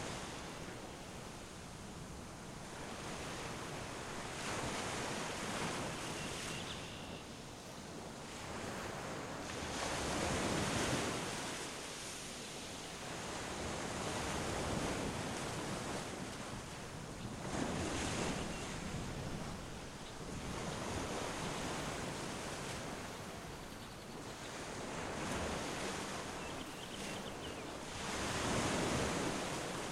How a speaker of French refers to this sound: Laisse-toi encore porter par le bruit des vagues